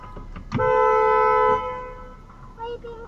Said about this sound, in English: So this guy was backing into her. She moved back. Now the guy, she beeped the horn at the guy. He got pissed.